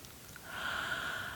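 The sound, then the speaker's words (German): A slow, deep breath in and out taken with eyes closed to pause and relax, a soft airy hiss that swells gradually and holds steady, with no talking. “Aber ansonsten schließ einen Moment die Augen, schnaufe einmal durch,”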